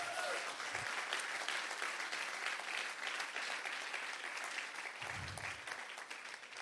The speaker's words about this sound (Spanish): Alguien diga, gloria a Dios. Vamos, dale un aplauso fuerte a Jesús.